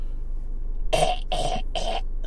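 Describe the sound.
A voice imitates choking with three rough, gagging bursts in quick succession, fairly loud, with no words spoken, mocking the Toronto Raptors choking against LeBron James and the Cavaliers.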